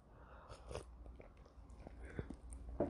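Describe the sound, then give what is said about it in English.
Quiet sipping of matcha green tea in the evening, with a few soft slurps and wet mouth clicks spread across a few seconds and no talking. “I'm drinking matcha green tea. If you're just wondering that sound, you're familiar.”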